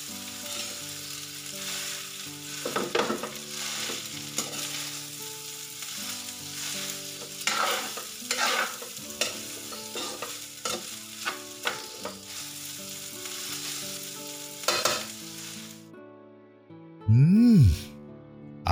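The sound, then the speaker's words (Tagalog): Fried rice sizzles and crackles steadily in a hot pan, with scraping stir strokes breaking through in irregular bursts; the sizzling stops and a short hum-like voiced sound follows at the end. “Ayos na ang lasa nitong fried rice ko.”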